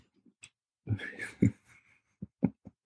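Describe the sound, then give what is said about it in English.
A dog rustles and crinkles plastic while investigating a closet: a stretch of scrunching followed by several short, irregular thumps and crackles, fairly quiet, with no one talking. “But my dog is um, investigating the closet and, and, making noise on the plastic.”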